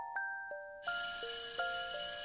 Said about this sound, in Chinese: 遗憾的是，还没等我向金刚他们显摆，上课铃声就响了。